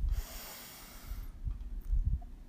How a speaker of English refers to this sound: We begin by taking three deep breaths together. We'll breathe deeply from the bottom of our belly. So we'll breathe in